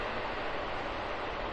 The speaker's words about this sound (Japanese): 電車の音すいません。